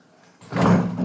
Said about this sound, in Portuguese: Olha, arrastar a cadeira aqui.